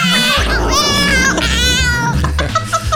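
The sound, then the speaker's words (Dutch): A cat meows loudly and insistently, several drawn-out, wavering cries in close succession, sounding distressed over a low background hum. “Kat, ja.”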